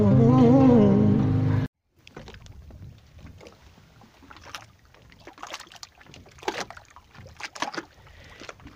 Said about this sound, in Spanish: Ese es el sonido de pequeñas olas golpeando un muelle aquí en el hermoso, majestuoso lago Titicaca en una tarde bellísima de domingo